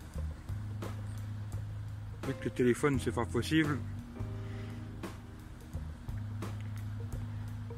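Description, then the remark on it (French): A very large boat's engine drones steadily at a low pitch throughout, constant, while a man speaks briefly over it in the middle. “gros gros bateau ça. Oh mon bateau, c'est le plus beau des bateaux.”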